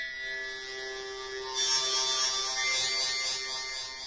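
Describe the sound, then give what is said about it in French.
A single sustained, buzzy synthesizer note from the Animoog app on an iPad holds steady, then brightens and grows slightly louder partway through as a finger pressing and moving on the key applies aftertouch. No one speaks over it. “Et euh, pour, vous juste euh, vous faire comprendre ce que c'est que l'aftertouch, euh, je vais vous je vais vous faire un truc.”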